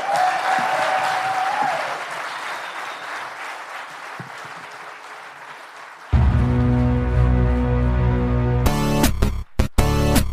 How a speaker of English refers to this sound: All right, let's give these guys give a hand.